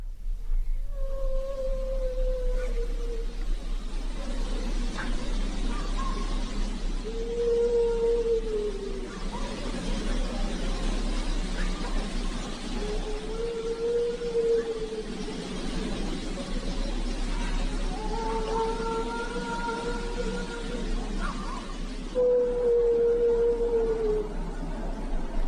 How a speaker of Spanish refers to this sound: ese, ese es el lamento original de La Llorona.